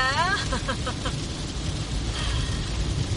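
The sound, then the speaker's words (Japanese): Heavy rain hisses steadily over the low rumble of a car in motion, heard from inside the cabin, with a brief voice-like sound at the very start. “雨ひどいけど聞こえてます”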